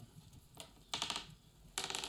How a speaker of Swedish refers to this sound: Då är det helt enkelt slår vi tärningar och ser vem som börjar.